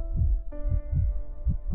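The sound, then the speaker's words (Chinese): A quick, steady heartbeat heard through a doctor's stethoscope during an examination: soft, muffled low thumps repeating about twice per second, with a faint sustained tonal hum underneath and no voices. “医生先用听诊器仔细的听了听莱奥身体内部发出的声音，包括心跳声”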